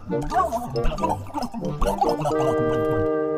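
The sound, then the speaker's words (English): A gurgling underwater bubbling effect as Winnie's wailed words come out as bubbles under the sea, with a warbling, voice-like quality, rising and falling in bursts before settling into a steady, wavering tone. It stays fairly loud throughout. “But it sounded like bubble, bubble, bubble.”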